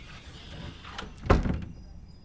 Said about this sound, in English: The only way he knows it wasn't an aberration, is the sound of a slamming door.